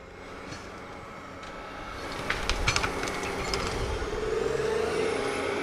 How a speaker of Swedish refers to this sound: Nu kör den igång maskinen här och eh, då strömmer folk till såklart. Det är intressant när någonting brummer och knakar.